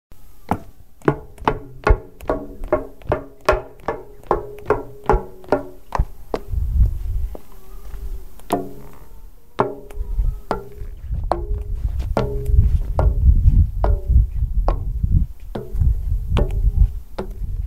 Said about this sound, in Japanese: 何の音か分かりますか包丁をまな板で叩く音ではありませんこちらは木造アパートの階段を駆け上がる音です